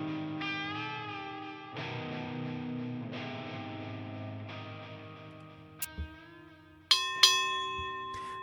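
A boxing ring bell at Pacific Coast Boxing rings out for round one of fight number five, in a series of resonant metallic dings that sustain and overlap, then a few sharper, brighter strikes near the end. Clear, with no voices.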